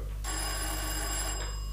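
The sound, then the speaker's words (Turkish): An electronic doorbell rings steadily for over a second, bright sustained tones with a shrill ringing buzz, fairly loud, with no voices. “Kapı çalıyor duymadın mı?”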